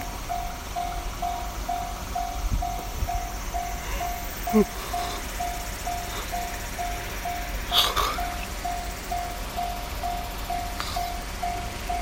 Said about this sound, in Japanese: カンカンカンカン乗って電車が通過していきます